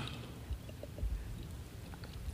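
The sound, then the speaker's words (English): Quiet plastic crackling and a few soft clicks and pops as the small, complicated twist cap on a bottle of fancy water is twisted open, with no talking. “I am struggling with this water. See, y'all give me this bougie water with these little complicated twist caps.”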